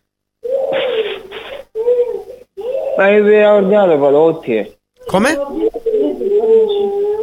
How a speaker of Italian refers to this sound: Sento, sento, un po' di baccano, se si può mettere in un posto... Sì, sì, è una figlia che piange.